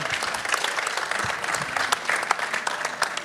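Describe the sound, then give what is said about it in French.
A crowd claps steadily, a dense patter of many hands at an even loudness that carries on for a few seconds without pause. “Très bien, on peut applaudir.”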